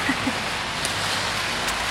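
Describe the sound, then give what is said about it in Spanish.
Steady rain falls in a continuous, even hiss with a few faint drips and taps scattered through, moderately loud, with no one speaking. “la lluvia, con los faros de los coches, los reflejos en el suelo, todo esto está haciendo, Me están dando muchas ganas de seguir jugando a Gran Turismo.”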